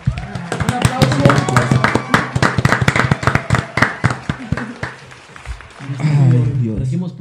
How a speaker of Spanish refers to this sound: Haz un aplauso, ¿no? Sí.